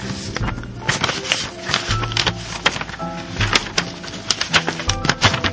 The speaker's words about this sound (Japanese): えー、去年のもう10月とかにいただいているのが、この管理人室の、えー、段ボールの底の方に埋もれていたのを先日私は密かに見つけてしまったので、これはちゃんと読んでおかないといけないと。ですね。まして、はい、今日お手紙を開きたいと思います。